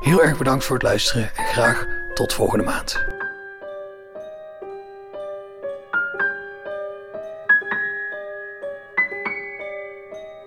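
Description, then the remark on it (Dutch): A person talks briefly, then gentle outro music takes over on its own: a slow melody of sustained, bell-like notes stepping up and down at a soft, steady level. “De muziek bij deze podcast wordt gemaakt door”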